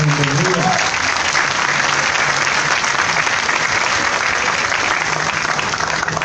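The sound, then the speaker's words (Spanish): Sustained audience applause at a Sunday-morning induction and welcome seminar, a dense wash of many hands clapping at steady loudness for several seconds, with faint voices briefly audible at the start. “Así que un aplauso para todos ustedes por estar acá.”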